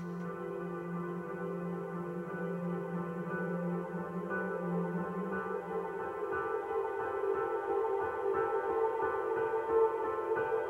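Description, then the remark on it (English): A music track with delay matching its tempo added, then played backwards, with sustained droning tones that swell and smear into each other at a steady, fairly loud level, no voices over it. “…, and so I reversed it.”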